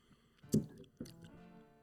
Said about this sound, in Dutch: En nu gaan we slurpen, jongens. Dus even een waarschuwing. Er wordt nu even wat eh, gedronken en geslurpt.